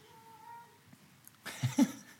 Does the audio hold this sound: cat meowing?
yes